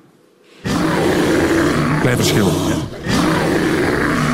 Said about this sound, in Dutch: En dit is een beer.